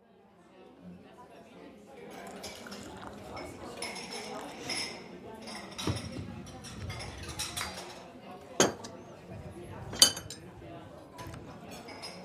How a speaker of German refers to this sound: Für die heutige Folge habe ich mich äh, ins Café begeben, wie versprochen